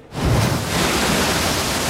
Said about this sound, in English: Apart from that massive wave.